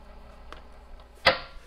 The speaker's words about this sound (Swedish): Vi spolar tillbaka bandet.